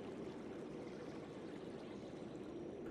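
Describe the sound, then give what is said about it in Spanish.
A steady stream running through a small ravine in a forest rushes and burbles continuously, fairly loud, with a dense, even texture and no voices. “Después de correr demasiado lejos para estar a salvo, llegué a un pequeño barranco con un arroyo que lo atravesaba.”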